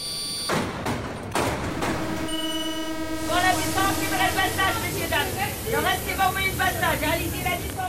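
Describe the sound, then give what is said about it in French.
A Paris metro train rumbles and clatters, then a steady electronic door-warning tone sounds before a crowd of passengers chatters loudly over the train's hum as it pulls away. “Mais aujourd'hui, le métro à Paris, ça ressemble plutôt à ça.”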